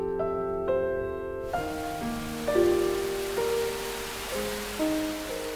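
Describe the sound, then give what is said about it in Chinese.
Steady, hissing rain patters on a roof, doors and windows, beginning after a moment and continuing under slow, gentle sustained musical notes that change every second or so. “外面的雨点打在屋顶上、门窗上，发出凄凉的声音，仿佛在为莎拉叹息。”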